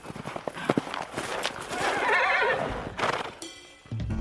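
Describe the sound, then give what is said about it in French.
A pony whinnies in the distance in answer to a whistle, a rising, wavering neigh over a scatter of quick hoofbeats drumming as it gallops closer. “Un hennissement lointain lui répond. Un instant plus tard, Ablut, son fidèle poney, arrive au galop.”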